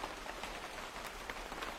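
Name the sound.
rain falling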